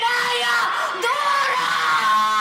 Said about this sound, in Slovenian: Kriči resno na vse, na vse grlo